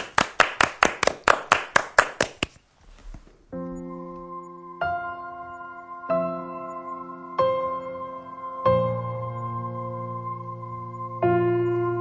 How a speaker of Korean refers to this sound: 자, 박수로 청해서 들어보겠습니다.